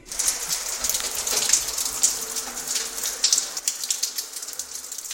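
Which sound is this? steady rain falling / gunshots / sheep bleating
steady rain falling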